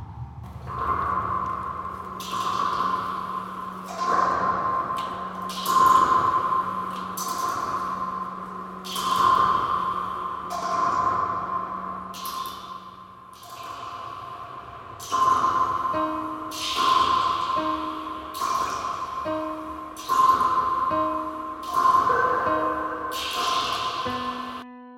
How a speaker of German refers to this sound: Ich habe hier noch das Klavier hinzugefügt, um zu zeigen, dass die Tropfentöne zum einen ja auch eine Tonhöhe haben und dass wir sie realen Tönen zuordnen können.